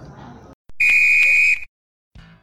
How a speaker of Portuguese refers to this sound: Bem, apito final aqui no Eu Sou 10.